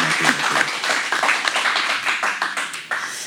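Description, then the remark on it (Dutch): Audience applause for Arco: many hands clapping in a dense, continuous patter of sharp, bright claps, steady and fairly loud throughout with no voices standing out. “Mag ik ook een groot applaus voor Arco.”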